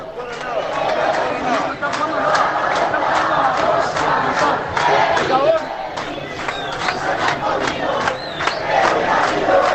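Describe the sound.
A large crowd of football fans chants and cheers loudly and continuously in the streets of central Melbourne, Australia, many voices blending into a dense, celebratory roar with rhythmic bursts.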